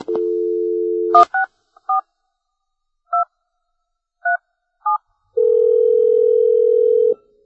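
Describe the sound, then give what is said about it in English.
A steady phone dial tone gives way to six short keypad beeps pressed at uneven intervals, followed by another long, steady tone, as a call is placed to pinball designer George Gomez. The tones are clear, with no voices. “We're going to give George Gomez a call right now and uh, talk to him here on Topcast.”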